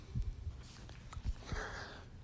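A single muffled, faint sneeze from another room, set against a quiet background with a few soft low thumps. No one speaks.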